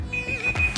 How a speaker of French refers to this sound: Ça, c'est mon téléphone.